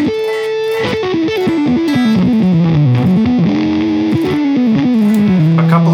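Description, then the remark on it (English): An electric guitar plays a flowing melodic line through the clean preset of a Mark II amp, notes sustaining and sliding into one another at a steady, fairly loud level, with no talking. “Uh, I'll just go through them so you can hear them. This is the clean again.”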